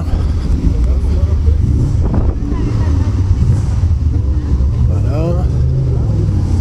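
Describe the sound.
A Porsche racing car engine roars steadily on a circuit at a 2023 racing event, with a deep, continuous rumble and a brief rising rev near the end, mixed with wind buffeting and muffled voices.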